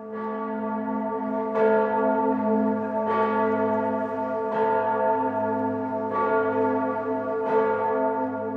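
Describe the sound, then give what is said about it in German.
A large church bell, the largest bell in southern Germany, hanging in the north tower in Munich, tolls steadily. Each loud strike comes about a second and a half apart, its deep humming resonance sustaining continuously between strokes. No voices are heard. “Da hat man einfach gemerkt, dass die Münchner Bürgerschaft eben die größte Glocke haben wollte, die es hier in Süddeutschland gibt.”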